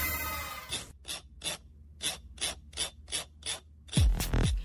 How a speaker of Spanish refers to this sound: Las hojas de una libreta.